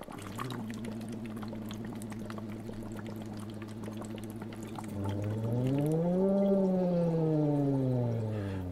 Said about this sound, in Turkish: Glissando.